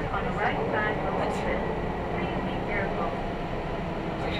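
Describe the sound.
A train runs steadily along the tracks, a continuous rumble and rattle with faint muffled voices mixed in beneath the noise, recorded on the Yokkaichi Asunarou Railway from Hinaga to Yokkaichi and on a Kintetsu express from Yokkaichi to Ise-Wakamatsu.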